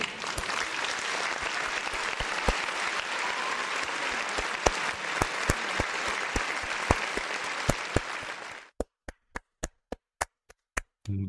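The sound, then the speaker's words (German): A crowd applauds loudly for about eight seconds to welcome a returning guest, a dense wash of clapping, then it drops off to a handful of single sharp, evenly spaced claps from one person. “Auch für Yo. dich ein fetter Applaus.”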